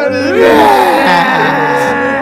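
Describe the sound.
A loud, exaggerated mock crying wail from a voice, wavering and drawn out with sliding pitch for about two seconds, theatrical rather than real sobbing, as on-air mock mourning for a departing show member.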